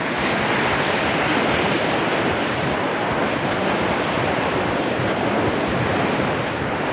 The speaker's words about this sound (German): Dann seid ihr jetzt also live dabei am Atlantischen Ozean, wo die Wellen hier auf den Strand platschern.